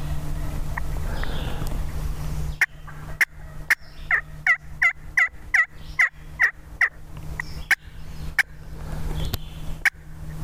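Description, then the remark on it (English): A wild turkey gobbles in a rapid rattling burst, followed by a hen's sharp, irregular cutting clucks, heard outdoors over a steady low hum with no talking. “So, when he just gobbled, he's telling her I'm over here. And that what she did was she cut back to him.”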